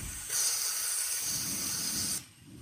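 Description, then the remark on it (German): A lid lifts off a soup pot of fresh chicken soup while cooking, and steam bursts out in a steady, bright hiss lasting about two seconds, then cuts off abruptly, leaving faint low rumbling. No one speaks. “Und ich versuche hier mal den Suppentopf zu öffnen.”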